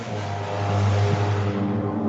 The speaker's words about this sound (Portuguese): Olha a moto, olha a moto. Nossa!